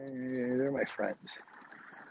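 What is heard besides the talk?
birds chirping outdoors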